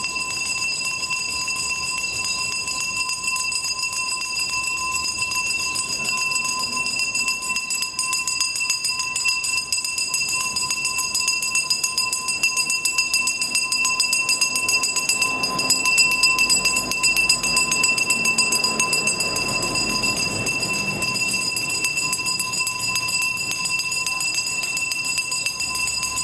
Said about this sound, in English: the garbage man the garbage truck and the man who goes up and down my street and every street with his bell.